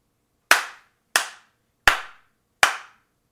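Four sharp hand slaps in a steady, slightly uneven rhythm, each a crisp, bright smack that fades quickly, with silence between them and no voices.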